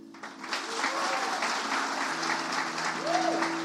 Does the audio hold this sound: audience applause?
yes